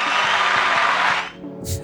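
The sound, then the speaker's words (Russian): A dense burst of studio applause, a steady wash of many hands clapping for just over a second, then it quickly fades out, followed by a brief faint noise. “Аплодисменты, пожалуйста, в студию.”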